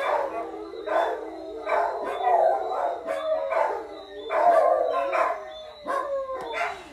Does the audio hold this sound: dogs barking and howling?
yes